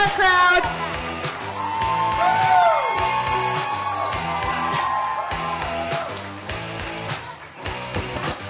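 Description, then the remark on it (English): A loud, lively crowd cheers and whoops for several seconds, with rising yells and shouts layered over a steady, pulsing background that dips briefly near the end. “Remember, crowd participation, big part, big part.”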